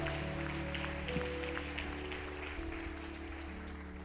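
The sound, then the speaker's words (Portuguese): An audience applauds God steadily for about four seconds, a dense wash of many hands clapping over low, sustained keyboard chords, with no voices speaking. “Aplaude a Deus por isso.”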